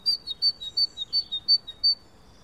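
A great tit sings a quick series of about ten high, clear whistled notes alternating in pitch, a steady two-note rhythm that stops before the end, with no voices.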